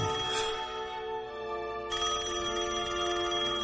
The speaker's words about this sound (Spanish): Sonó el teléfono.